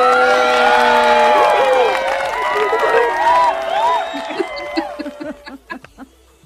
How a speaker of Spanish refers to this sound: pero igual, aplauso.